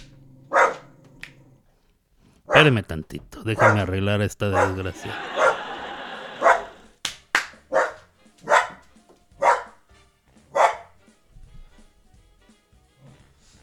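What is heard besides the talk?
dog barking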